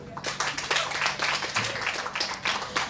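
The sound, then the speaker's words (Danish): An audience claps steadily for a few seconds, many hands making a dense, crackling patter of overlapping claps at an even, moderate loudness, with a faint murmur of voices underneath. “Det bliver en ting, vi klapper meget i dag.”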